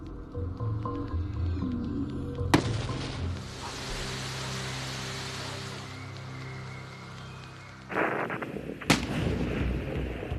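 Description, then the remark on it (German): A balloon filled with hydrogen and oxygen gases, produced from water, explodes with a sudden, loud, sharp bang, followed by a sustained roaring rumble and then a second abrupt blast near the end. No one speaks. “Sie können explodieren.”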